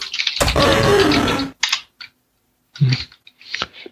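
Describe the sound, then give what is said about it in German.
A quick run of computer keyboard typing, entering the command "Öffne Schublade" (open drawer): a dense clatter of keys for about a second, followed by a few shorter, scattered bursts of keystrokes with brief pauses between them. Nobody speaks. “Hab mich wohl vertippt.”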